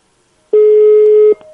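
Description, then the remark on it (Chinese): A single steady telephone tone as a phone call connects, loud and mid-pitched, holding for just under a second before cutting off, leaving a faint trailing blip; no one speaks. “等等啊，接通电话了哈，你和他说。”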